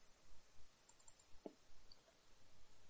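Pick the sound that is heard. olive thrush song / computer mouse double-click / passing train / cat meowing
computer mouse double-click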